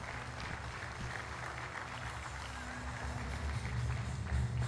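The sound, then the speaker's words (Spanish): A crowd claps steadily, applauding strongly and eagerly, a dense wash of applause that holds at a moderate level and swells slightly louder toward the end, with no clear voices. “Porque sabe algo, si va a aplaudirle, apláudale fuerte, apláudale con ganas.”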